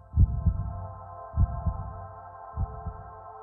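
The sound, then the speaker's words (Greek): A slow, deep heartbeat thumps in steady lub-dub pairs, three beats in all, over a constant low hum. No clear clock ticking stands out, and no one speaks. “Μπορεί να ξεχωρίσει ακόμη και του παλμού τη καρδιά του. Τους ακούει πεντακάθαρα. Μπλέκουν με τους χτύπους του ρολογιού που δείχνει 8 και μισή.”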